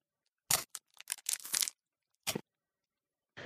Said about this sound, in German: Dann würde ich sagen, beim Knuspergeräusch go.